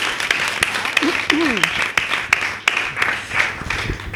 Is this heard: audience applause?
yes